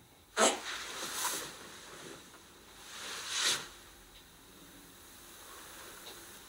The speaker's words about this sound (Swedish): Eh, ja, eller vem väntar sig ett stycke prutt mitt i Agent Action?